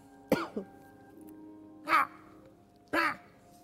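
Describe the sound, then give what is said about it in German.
Three harsh, raspy crow caws ring out one after another with pauses between, each a short rough burst, clear against a quiet low hum, as three crows land one by one on a roof in the evening light. “und während ihr da sitzt und äh, noch zum Mond und zu den Sternen schaut, merkst du, wie nach und nach eins, zwei, drei Krähen mit bei euch auf diesem Dach landen.”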